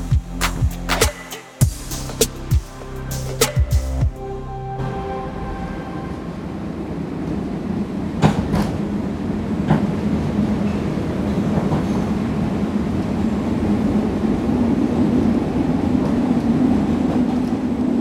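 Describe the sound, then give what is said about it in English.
Steady low rumble inside a train riding in Chicago, opening with a burst of sharp metallic clacks and screeches before settling into a continuous droning hum with faint rattles. “I'm taking the train to get some coffee.”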